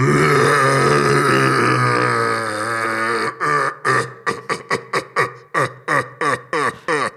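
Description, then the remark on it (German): A human voice imitates a red deer's rutting roar: one long, deep, rasping bellow, then a quick series of about ten short, loud grunting barks. No one speaks. “Also die Hirschkuh, damit die angelockt wird, wird der Brunftschrei nachgemacht.”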